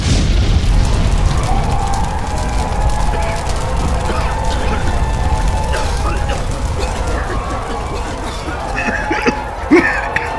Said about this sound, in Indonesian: Sejurus kemudian, Gemeretak terdengar suara api yang membakar di sekeliling loji. Api kian membesar.